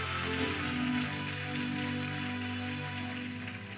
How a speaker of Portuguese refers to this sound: Pode aplaudir Jesus, se for para aplaudir, irmãos.